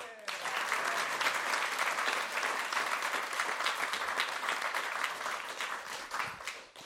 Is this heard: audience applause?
yes